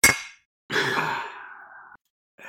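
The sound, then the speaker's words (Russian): Glasses clink once in a quick, bright toast that rings out and fades, followed by a long, breathy sigh-like exhale and a brief rustle at the end. “Можно чокнуться еще. Такой, чтобы звук был.”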